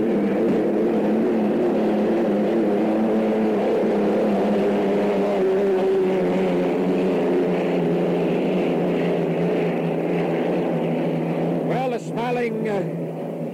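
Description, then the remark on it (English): Hydroplane racing boats roar with a loud, sustained engine drone at the start of a race, and near the end a sharp rising-and-falling pitch sweep marks one boat tearing past. “The rooster tail you see on the extreme left-hand side of your picture is the Budweiser.”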